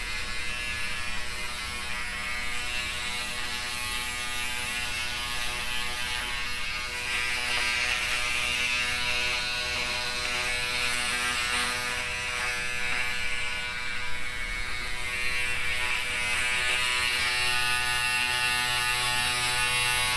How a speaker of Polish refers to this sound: I teraz włosów nie zetnę, bo nie mam ku temu warunków, ale brodę ogolić mogę.